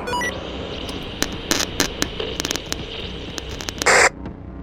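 Harsh static hisses steadily from a radio as someone tries to call for help, broken by sharp crackling bursts and a loud burst of noise near the end before it drops back to a quieter hiss. No voices come through.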